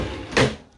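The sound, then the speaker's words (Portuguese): A window slides open with one short scraping rush that swells and fades within a split second, set against a quiet hum. “Deixa eu abrir essa janela.”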